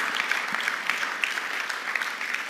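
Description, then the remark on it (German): An audience claps steadily, a dense, even patter of many hands with small bright peaks of individual claps throughout, sustained without a break and with no voices over it. “Geben wir Ihnen doch nochmal einen Applaus.”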